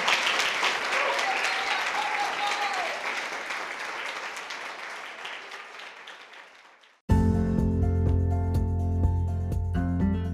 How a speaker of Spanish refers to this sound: Dale un fuerte aplauso al Señor dáselo con todo tu corazón, dáselo con todo tu corazón.